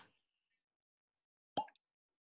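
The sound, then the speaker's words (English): A single short pop as a fresh bottle is opened, a quick percussive burst with a brief tail, followed by a tiny faint tick; otherwise near silence, fairly quiet overall. “This is a fresh bottle, so I'll be fortunate enough to get the the infamous little pop.”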